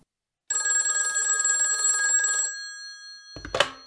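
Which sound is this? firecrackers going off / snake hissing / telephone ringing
telephone ringing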